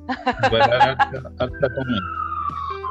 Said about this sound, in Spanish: Oye, ¿qué pasó? ¿Por qué hay ambulancia? quién le está pasando una ambulancia por el lado? A mí me está pasando ambulancia por el lado